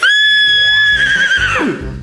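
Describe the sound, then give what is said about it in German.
A person imitates a horse whinny: a loud, high, sustained squeal that wavers and then drops in pitch, ending in a rough, breathy nicker, alone with no other talk. “Ich habe keine Ahnung, warum ich dieses Pferdegeräusch so gut nachmachen kann.”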